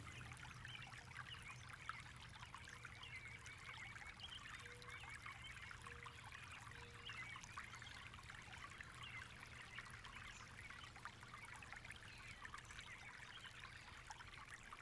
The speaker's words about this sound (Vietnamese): Tiếng nước chảy. Mang lại cảm giác nhẹ nhàng, thanh tịnh